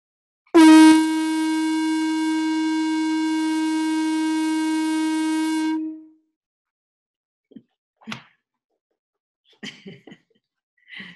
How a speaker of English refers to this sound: and the conch horn sounds to to honor you and encourage you to keep keep going forward